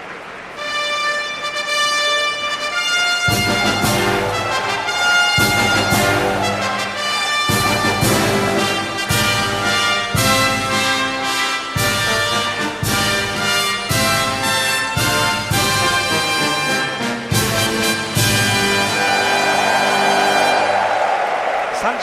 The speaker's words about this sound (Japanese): スターターが台に上がりました NHK マイルカップファンファールです